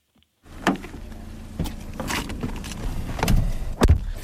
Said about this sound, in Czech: Tak, auto okolo nás teď projelo. Teď ho začneme tedy pronásledovat.